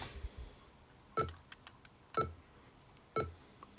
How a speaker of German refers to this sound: Also ich habe jetzt Enter gedrückt und jetzt wird die portable Version erstellt. Im Sekundentakt kommt immer dieses A, also dieser Ton, 440 Hertz, glaube ich.